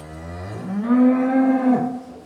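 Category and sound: animal, cow mooing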